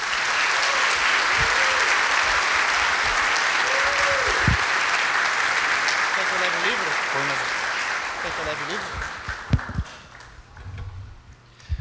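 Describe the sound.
A crowd claps steadily and densely for about nine seconds, with scattered voices calling out over it, before the applause thins and fades away.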